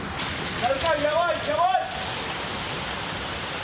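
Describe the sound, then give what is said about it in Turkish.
A heavy rain downpour in Mersin, Turkey, after two days of intermittent showers that intensified and caused flooding, hisses steadily and loudly across the whole clip, with a brief wavering voice-like tone rising above the rain near the start. “İki gündür aralıklarla devam eden sağanak yağışlar şiddetlendi.”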